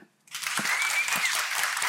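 An audience bursts into applause after a brief silence, clapping to vote for the theory that Kaspar was a fraud, a dense, steady wash of many hands clapping that holds at an even level to the end.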